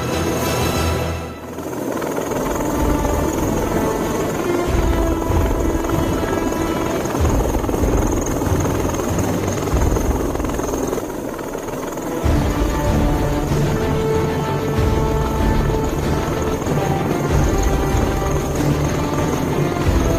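A helicopter thunders, its rotor churning a loud, steady throbbing roar with a high whine layered on top, holding strong for the full stretch.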